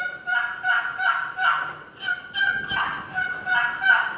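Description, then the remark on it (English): A turkey box call is worked by dragging it back and forth in a steady series of raspy, squawking yelps, repeated notes in an even rhythm, fairly loud, with no voices over it. “now, anyhow, this box call is designed. You can take it and drag it back and forth.”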